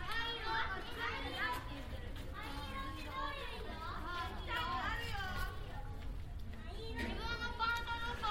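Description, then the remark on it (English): Many children chatter and shout at once, their high voices overlapping continuously against a steady outdoor background hum, sounding like a busy playground, recorded in a residential area of central Tokyo, Japan. “However, since being landlocked in my residential area in central Tokyo, I've been recording sounds of the daily and the mundane. Sounds of children, bicycles, and ambulances.”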